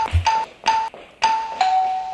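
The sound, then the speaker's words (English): A doorbell rings repeatedly, four quick chimes in a row, each a bright tone with a short sustain, loud with no voices over it. “Quit ringing the bell.”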